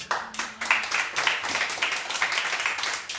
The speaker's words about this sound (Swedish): lycka till med en applåd.